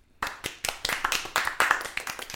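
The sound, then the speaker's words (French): A small group of players, a team, claps for themselves together, quick overlapping hand claps forming a brief, uneven burst of applause that starts abruptly and stays fairly steady for a couple of seconds. “c'est une belle équipe qui s'applaudit.”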